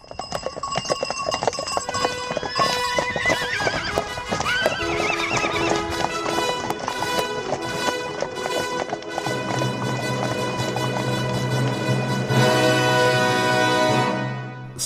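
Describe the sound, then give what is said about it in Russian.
A horse whinnies loudly over steady, rapid clattering hoofbeats, with ringing bells layered through the busy scene and a deep rumble building toward the end. No one speaks. “Любите ли вы лошадей? Если да, то обещаю вам увлекательные скачки.”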